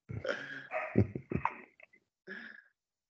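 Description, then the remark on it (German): A dog barks in a short series of about four or five yelping, slightly whiny barks, fairly soft, with brief pauses between them. “Ich höre immer was bellen.”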